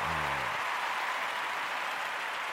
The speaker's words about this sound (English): I'm gonna give myself a uh, round of applause for being an upstanding adult